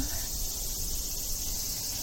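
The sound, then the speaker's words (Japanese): Cicadas drone steadily outdoors, a continuous high buzzing chorus that fills the whole stretch without pause, moderately loud against a broad ambient hiss. “ああセミちゃんも頑張ってるもんな”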